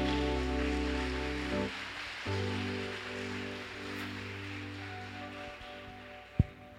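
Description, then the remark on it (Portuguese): A church audience applauds Jesus loudly and steadily, a dense wash of clapping that holds for several seconds over sustained keyboard chords, with one sharp thump near the end. “Escuta uma coisa, pode aplaudir a Jesus bem forte.”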